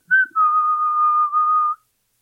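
A person whistles a short, casual, innocent-sounding tune: a quick opening chirp, then one long, steady held note that fades out. It is clear, with no talking.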